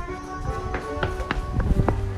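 Quick footsteps of a person running through the empty Splash Mountain queue after hours patter along a hard floor, a run of sharp taps roughly every quarter second, over a steady background hum with faint voices.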